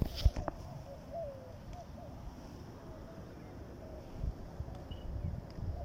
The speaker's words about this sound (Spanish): El sonido de las aves, de los animalitos silvestres. Nos encontramos aquí en un parque al cual me gusta a mí acudir regularmente. Es una especie de bosque urbano en medio de la ciudad.